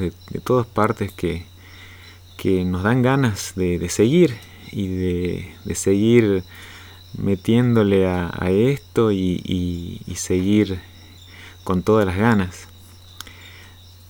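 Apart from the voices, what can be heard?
crickets chirping at night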